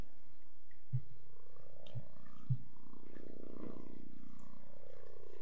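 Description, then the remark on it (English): Many Bible pages rustle and turn at once as listeners turn to Revelation 12:11–17 for the morning scripture reading, a soft, continuous papery wash with a few faint thumps and clicks scattered through it, and no one speaking. “It's nice to hear the pages rustle.”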